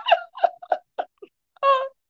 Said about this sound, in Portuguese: E só, só emoção e choro, né? Mais nada. Só emoção.